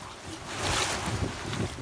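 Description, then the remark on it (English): Steady wind buffets the microphone over a broad wash of floodwater on a completely submerged residential street at high tide, on the coast just north of Boston, a continuous rushing and lapping with no distinct events and no voices. “The water is ankle deep in her backyard and out front, the street is completely submerged, and water creeps up the front steps towards her door.”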